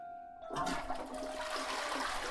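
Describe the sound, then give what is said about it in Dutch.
A toilet flushes, its cistern filled with ditch water: a sudden rush of water surging in after a faint tonal hum, then a steady gushing roar through the end. No one speaks. “Dat het water in de stortbak van de wc uit de sloot kwam, hoefden de kinderen niet te weten.”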